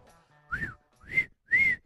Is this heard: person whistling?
yes